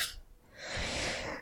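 sneeze

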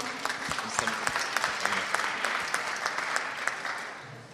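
audience applause

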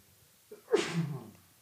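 sneeze

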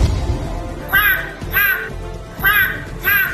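seagull calls sound effect

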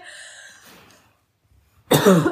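dry cough

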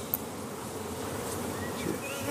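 honeybees buzzing around hives

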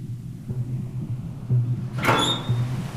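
door opening

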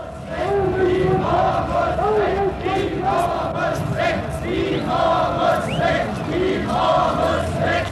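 protest crowd chanting

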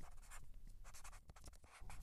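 writing

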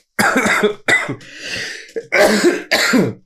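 sneeze or cough

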